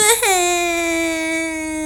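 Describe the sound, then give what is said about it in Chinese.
A voice imitates a baby's loud wail: one long, steady, high-pitched 'waah' that starts with a brief upward catch, then holds a strong, even tone for nearly two seconds. “宝宝的脸色瞬间转向铁青，哇”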